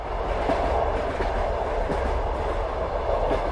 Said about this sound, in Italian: Ah, lo sentite, vero? Il rumore di quel treno sgangherato che affronta le intemperie.